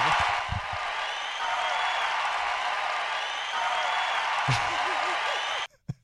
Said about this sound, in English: I like I like the applause on loop. I like that. Very very good.